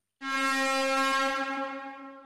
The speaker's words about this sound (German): Ähm, wir haben die Schlusssirene gehört